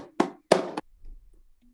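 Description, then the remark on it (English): A few sharp hand-drum strokes played with one hand ring out: a close slap, a tone, a muted tone and a high-pitched slap, heard as a crisp slap followed by a fuller tone and a quick flam-like hit, then a quiet low rumble as they fade. “We have a close slap, we have a tone, we have a muted tone, and then the third one is the high pitched slap.”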